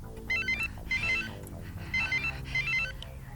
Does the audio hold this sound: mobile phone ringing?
yes